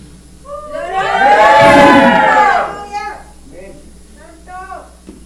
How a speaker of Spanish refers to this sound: Vamos a hacer la prueba de siempre, hermano. cuántos pueden dar un grito de júbilo.